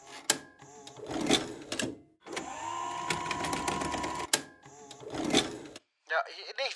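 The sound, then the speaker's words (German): A tape rewinding effect as a recording is wound back to replay what a guest said earlier: fast, garbled backward-sounding voice fragments alternate with a steady mechanical whirring whine in the middle, ending in high, squeaky chirps. “So ich spule an dieser Stelle für alle zum Beweis nochmal kurz zurück.”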